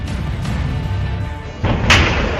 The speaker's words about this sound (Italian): Altra esplosione, raffiche continue, stanno sparando dai tetti, quindi è in corso il blitz, è cominciato.